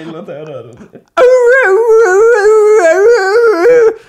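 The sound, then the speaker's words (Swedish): A person imitates the howl their dog makes when an ice cream truck drives past, holding one long, wavering, tonal howl for about three seconds after a brief stretch of talking at the start. “Vi har ju då en hund som, och när, när glassbilen åker förbi, ja. då gör den ett ljud som låter ungefär så här.”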